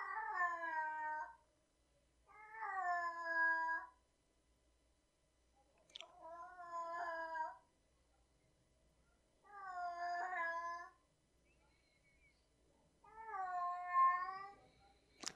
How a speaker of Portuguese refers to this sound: Vamos ouvir a cantoria da minha gata.